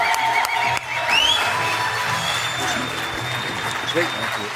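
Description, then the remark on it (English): A crowd claps and cheers loudly and steadily throughout, a dense wash of applause with a few whistles and shouts rising above it, and some voices mixed into the noise. “Make some noise!”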